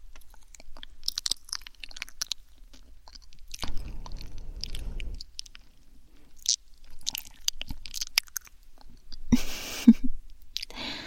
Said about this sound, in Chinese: 妈妈呀，是看你嚼的很辛苦，用舌头帮你助推一下，这样应该就没问题了吧？